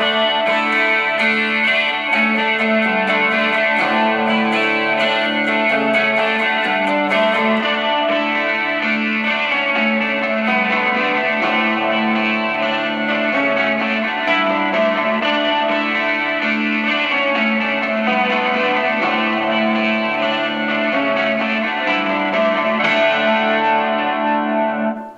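A guitar riff plays continuously through a shimmering, chimey Neunaber effects pedal, its bright repeating notes smeared with echo and chorus. Steady and fairly loud throughout, with no voices.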